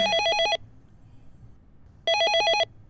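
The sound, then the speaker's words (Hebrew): An electronic drive-thru intercom bell at a McDonald's rings in two short bursts of rapid, trilling pulses, separated by a pause of about a second and a half, loud, with only faint background hum between. “אבל לפני שאני מספיק לעכל את זה, הפעמון באינטרקום מצלצל.”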